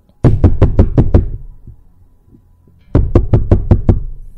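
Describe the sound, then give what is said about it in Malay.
Two bursts of loud, rapid knocking on a hotel room door by a visiting friend, about six sharp raps each, separated by a pause of near silence lasting roughly a second and a half. “Tiba-tiba pintu bilik diketuk.”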